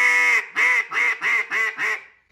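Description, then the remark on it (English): A duck call blown loud, imitating ducks quacking, in a quick run of six raspy quacks, evenly spaced, the last one trailing off into silence. “DUCK CALLING LESSON: From Beginning to Field”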